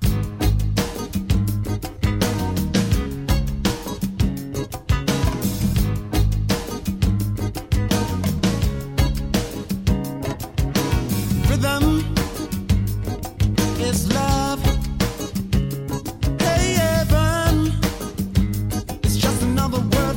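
A funk-soul song plays loud and steady for the whole stretch, with punchy, tightly rhythmic drums, a driving groove and a singer's voice riding over the band.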